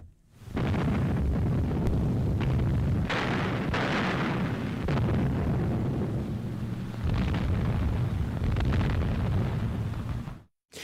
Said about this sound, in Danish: Ja, det her det er krigslarm øh, fra øh, øh, slag omkring Wien. Øh, russerne står ved Wiens porte, og, øh, og det er selvfølgelig, som, som nævnt før, øh, i slutningen af krigen.